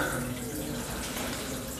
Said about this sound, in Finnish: tuossa vieressä on suihkulähde, liplattaa.